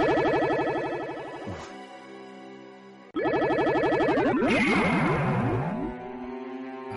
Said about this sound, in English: Had to get the sound of teleportation because the music for the reveal sequence is so underwhelming.